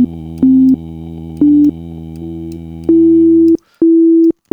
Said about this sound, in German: Hören wir nochmal kurz, welcher Ton das ist. Und ich kann hier auf dieser Klaviatur, kann ich ein bisschen spielen. Ne? Und dann hören wir mal kurz, welcher Ton es ist. Boom.